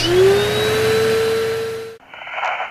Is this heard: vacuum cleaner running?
yes